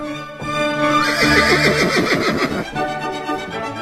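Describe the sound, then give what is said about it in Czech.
A horse lets out a loud whinny, its quavering cry rising and falling for a couple of seconds, with a faint clatter of hooves continuing underneath and after it. “podle všeho si ještě vydržoval koně a vlastní kočár.”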